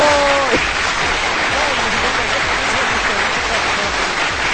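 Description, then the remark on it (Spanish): A loud, steady burst of applause sound effect: dense clapping that fills the whole clip at an even level. A brief tonal voice-like sound fades out at the very start. “Y pongo aplausos porque no tengo luz.”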